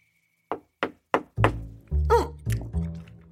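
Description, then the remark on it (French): Three quick, sharp knocks on a door, followed by several heavier, booming thuds that ring out loud, with a brief squeaky creak in the middle. “Lutin venait de fermer la porte. Il était en train de se goinfrer de fruits quand quelqu'un toqua à nouveau.”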